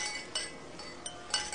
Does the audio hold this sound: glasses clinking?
yes